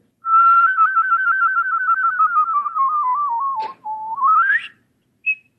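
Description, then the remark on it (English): A loud human whistle holds a rapid trill for several seconds, slowly sinking in pitch, then breaks and sweeps upward, ending with a brief high chirp. No one speaks. “I definitely picked up this trill technique like this”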